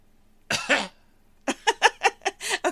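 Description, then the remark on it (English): A deliberate cough rings out, then after a short pause a quick run of about six choppy, uneasy little coughs follows, with no talking in between. “Did you want to cough uneasily?”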